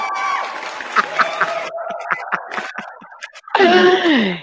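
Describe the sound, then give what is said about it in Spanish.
An applause sound effect played on a show to welcome a guest: a burst of crowd applause and cheering thins out into scattered claps. A loud, sliding tonal sound effect with a falling pitch follows it. “Ahora sí, ya se puede poner el aplauso.”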